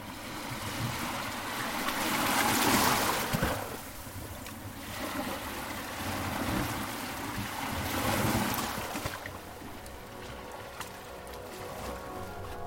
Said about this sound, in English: the sea ebbing, leaving wet sand and white foam residue.